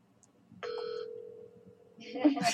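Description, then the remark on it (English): A phone is being dialed to call a woman: a short burst of layered electronic keypad tones, then a steady lower tone held for about a second, ending in a rush of rustling noise at the mic. “Yep, I'm calling her right now.”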